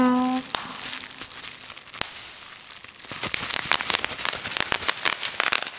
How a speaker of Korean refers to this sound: 자, 저 이 소리는요. 바로 3번 뾱뾱이였습니다. 에어캡이라고도 하고요. 뾱뾱이라고 부르는 분들도 있더라고요. 택배 보낼 때나 택배 보낼 때 깨지거나 부서지지 말라고 이걸로 싸서 포장하잖아요.